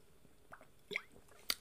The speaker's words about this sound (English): There was a sip of beer. Hmm, I got two beers in front of me.